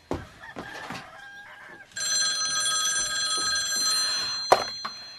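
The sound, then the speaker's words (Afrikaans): A telephone bell rings loudly and steadily with a bright metallic jangle, preceded by a few short knocks and rustles, with no one speaking. “Ag genade tog, wie is nou so lastig?”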